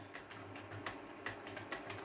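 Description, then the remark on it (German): Keys clack on a computer keyboard in a loose, uneven rhythm, several sharp taps standing out over a steady low hum. The typing is fairly quiet, with no voices. “Auch meine Tastatur und meine Maus, das ist alles sehr laut eingestellt.”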